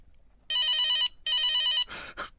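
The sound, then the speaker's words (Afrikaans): A mobile phone rings with a call from the owner's grandmother, two loud electronic trilling bursts separated by a short pause, followed by a couple of brief noisy rustles. “En toe lei sy foon.”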